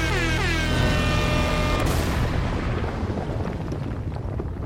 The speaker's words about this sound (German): Ja, dann ist jetzt der Moment. Und los! Jingle ab!